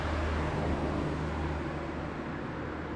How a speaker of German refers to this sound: Nicht böse sein, wenn, Achtung, warte jetzt kurz, jetzt kommt ein Auto. Wer Hintergrundgeräusche weiß, sind da.